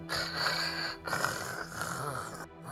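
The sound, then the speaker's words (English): Two long, raspy snoring breaths, fairly loud, each drawn out for about a second with a brief pause between them and no clear talking. “And I'm like snoring, like.”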